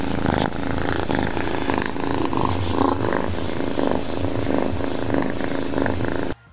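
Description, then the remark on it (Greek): A cat purrs steadily right up against the microphone, a loud, continuous rumbling drone with a fast fluttering rhythm that runs unbroken for several seconds before stopping abruptly. “Λοιπόν, τέλεια, είναι μια γάτα που κουρκουρίζει.”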